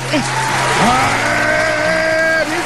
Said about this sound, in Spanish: Ah, pero tienes que contar la sintonía para poner los aplausos. No, hombre, no, no, por encima de sintonía.